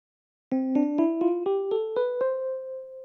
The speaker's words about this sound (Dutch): Do, re, mi, fa, sol, la, ti, do. Ja, precies. Dat is een majeur toonladder. Ik speel hem even voor.